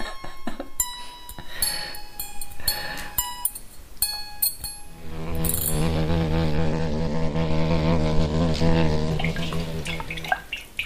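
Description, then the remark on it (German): Thin metal wires of an egg slicer plucked one after another like a violin, giving short twangy notes in a halting little tune, followed by a louder, steadier buzzing wash of sound. Nobody speaks. “da ist das mit so einem Eierschneider, oder? Man hört's, oder? Ja, das hört man.”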